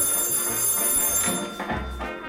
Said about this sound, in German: Telefon, Chef. Ja, ich komme.